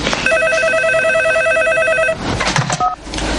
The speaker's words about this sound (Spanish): ¿Qué? Que están llamando el teléfono. ¿No lo oyes?